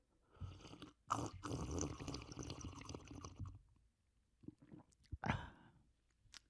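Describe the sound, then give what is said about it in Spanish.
Loud slurping of coffee from a small cup: a long drawn-out sip with wet, bubbly noise, a short pause, then a few quicker slurps and smacks near the end. “Te voy, a, voy a sorber a mi, a mi, a mi vasito, mira, para que escuchen el SMR.”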